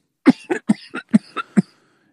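A man coughs hard in a quick run of six or seven harsh, chesty coughs, with no talking.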